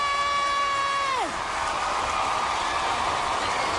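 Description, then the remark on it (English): A dense, roaring crowd cheers steadily at the 2021 American Music Awards, with a long high whoop that holds and then drops away in pitch before the clamor carries on loud and unbroken. “Damn, this crowd is loud.”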